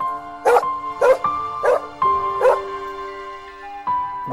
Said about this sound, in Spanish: movió su rabito feliz ladrando alrededor del fuego.